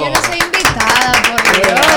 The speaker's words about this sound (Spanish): ¡Aplauso!